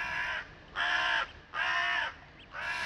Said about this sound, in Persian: نزدیکی های صبح تازه خوابم برده بود که با صدای کلاغا بیدار شدم